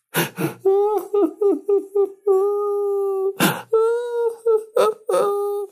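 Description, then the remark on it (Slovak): A voice imitates a princess's wailing cry: sobbing, stuttering bursts of high moaning, then a long sustained wail, a sharp breath, and more broken sobs. It is fairly loud. “A našli potom tú cestu a už zbadali ten hrad a už z diálky počuli plač.”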